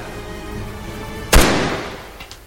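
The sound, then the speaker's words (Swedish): A single sharp pistol shot cracks out over a low steady background hum, loud, its echo trailing off over the following second. No one speaks. “Men skottet, som Anders påstår avlossades av misstag, är bara början”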